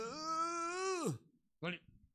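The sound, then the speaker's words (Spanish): A male preacher imitates a yawn: one drawn-out, loud vocal stretch whose pitch sags at the end, followed after a brief pause by a short, breathy grunt. “Entonces, si usted ve a uno de ellos bostezando, dígale, ore papito.”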